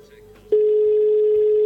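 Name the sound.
phone call ringing tone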